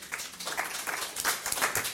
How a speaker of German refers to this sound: Spontaner Applaus.